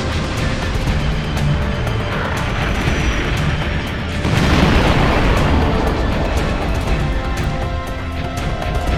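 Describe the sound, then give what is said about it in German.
A dense, continuous rumble of explosions and booming blasts from the bombardment of a fake planet, with a heavier surge of detonations about halfway through, loud with no voices. “während Oton das Bombardement des unechten Planeten fortsetzte”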